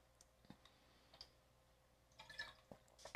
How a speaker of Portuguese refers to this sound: Deixa eu tomar minha água, peraí.